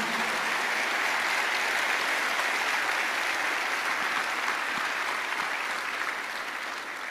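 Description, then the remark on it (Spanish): An audience gives a strong round of applause to the Lord Jesus in the morning, applauding steadily for about seven seconds, a dense, even wash of many hands clapping that stays loud throughout and eases slightly at the end. “¿Qué tal si le damos un fuerte, fuerte aplauso al Señor Jesús?”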